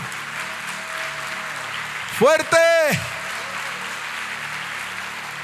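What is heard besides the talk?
audience applauding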